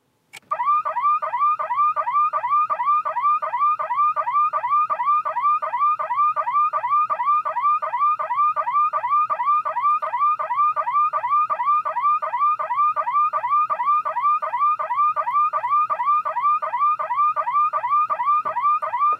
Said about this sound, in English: really this, this whole video deserves a woo-woo alarm. So in that spirit,